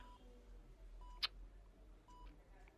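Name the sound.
phone call ringing tone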